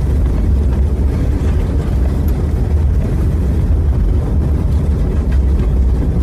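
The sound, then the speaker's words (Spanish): Two cars, one of them a police car, driving and arriving in a neighbourhood, a steady, loud, low engine rumble with road noise that holds constant throughout, no voices present. “Dos autos llegan al barrio.”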